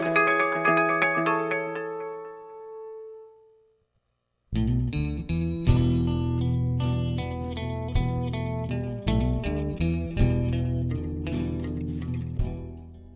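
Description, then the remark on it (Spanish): Instrumental music from an album recording: a ringing, sustained chord fades out, a brief pause follows, then a full, bass-heavy arrangement enters with steady rhythmic hits and bright, effect-laden tones. No one speaks. “Bueno, pues lo que usted escucha de fondo en este espacio de cultura en conexión universitaria es parte de la grabación del disco …”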